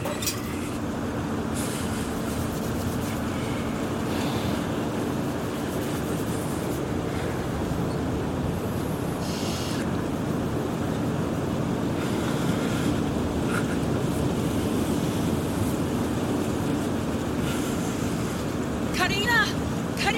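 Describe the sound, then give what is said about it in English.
A strong, freezing wind roars steadily and loudly throughout, a dense, constant rush with gusting swells and a deep low rumble, outside a bunker in the dark. “staring out into the dark, facing the wind straight on.”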